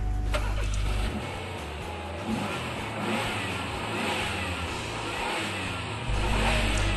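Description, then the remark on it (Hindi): The engine of a newly bought used car idles with a steady low rumble, then revs up and settles back down before revving again, fairly loud, with no voices. “एक खुशखबरी आपके लिए भाई ने गाड़ी ले ली अरे पुरानी नई नई ली है बस उसी के जी सा ले रहा हूं मैं मजा आ गया चला के”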